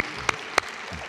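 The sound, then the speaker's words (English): A standing audience applauds together as a clap offering to the Lord, a dense wash of clapping from many hands with two sharper claps popping out above the steady patter. “Let's give the Lord a clap offering, would you?”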